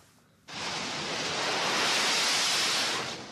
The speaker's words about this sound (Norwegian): Et jetfly tar av fra hangarskipet USS Wasp et sted i Middelhavet. En mann i gul kjeledress og hjelm sender flyet av gårde på tokt til Libya, der amerikanerne igjen har startet sin bombing.